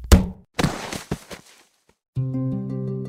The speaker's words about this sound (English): It was going to be a short nap because she was going to be woken up precisely at 2:46 p.m. by a falling meteorite that crashed through her roof bounced off her radio, then bounced off her.